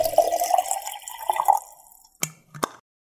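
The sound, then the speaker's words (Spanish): Water is poured into a mate gourd with freshly renewed yerba in a steady, gurgling stream lasting about two seconds, its pitch rising as it fills, followed by two sharp little knocks. No one speaks. “Yerba renovada y agua lista para volver a tomar unos ricos mates escuchando ….”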